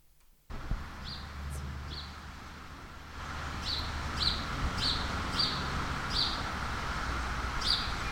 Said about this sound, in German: Das Abendrot wird ihnen gar nicht gefallen, obwohl die Vögel schön zwitschern.